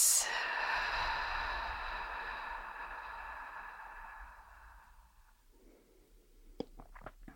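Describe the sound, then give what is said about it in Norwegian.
A long, slow breath out, steady, gradually fading over about five seconds, followed by a moment of near silence and a few soft clicks; a person exhaling for a count of six during a guided breathing exercise. “Og så dobler du ut, så puster du ut på seks.”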